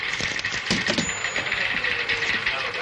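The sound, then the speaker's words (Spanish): A telephone is hung up: a few sharp plastic clicks and a light clatter as the receiver settles, with a steady hiss underneath and no voices. “cuelga el teléfono y sale al exterior de la casa.”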